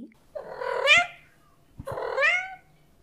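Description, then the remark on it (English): Two long, drawn-out, loud meows from Ocean, Miss Kim's cat, each rising then falling in pitch with a short pause between them. No talking is heard. “Ocean meowed loudly,”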